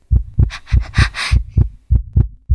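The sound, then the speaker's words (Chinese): A heartbeat ASMR recording: a heartbeat thumps steadily in low, muffled pulses, around eight or nine beats in quick succession, with a soft breathy hiss rising over the middle beats. No one speaks. “那个心跳声我就不说是谁的了。”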